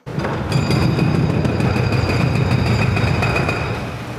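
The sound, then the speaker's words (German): Heavy machinery rumbles steadily, a dense low roar with repeated knocking and high metallic squealing overtones, as very large excavators work on the building site at the old Sennhof prison in the old town of Chur, where the prison is being converted into apartments, commercial space and restaurants. No one speaks. “Wer durch die Altstadt von Chur läuft, der hört der Baulärm beim alten Gefängnis Sennhof.”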